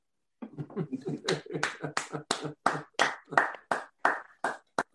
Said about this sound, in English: And I think that is worth a round of applause.